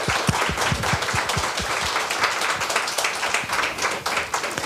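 A live audience applauds steadily, dense overlapping claps filling the room at a fairly loud, even level with a few louder individual claps near the start.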